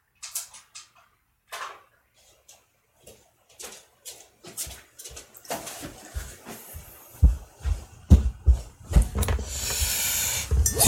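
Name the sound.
door being opened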